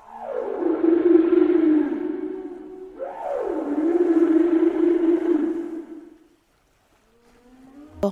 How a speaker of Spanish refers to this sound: Era Griselda, una ballena muy joven, que jugando con la corriente se alejó de su familia y se perdió. Nadó y nadó, gritando